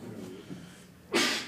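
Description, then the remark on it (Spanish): A single sharp sneeze bursts out, loud and breathy, after a brief quiet stretch with a faint low murmur. “Salud.”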